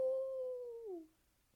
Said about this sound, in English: He's he's like six. Like if you're usually if you're gonna learn how to howl, like you work on that when you're a puppy. Like nope. He is six and he has learned how to howl and he's really enjoying it. He just woo woo.